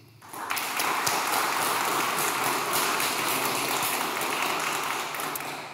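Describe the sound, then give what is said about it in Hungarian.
A crowd applauds steadily at a Budapest debate between candidates for constituency 18, welcoming the Momentum party's candidate. It is a dense wash of many hands clapping that swells in after a brief quiet start and holds at an even level before easing slightly at the end. “és itt van velünk a Momentum jelöltje is, nagy tapsot szeretnék kérni neki.”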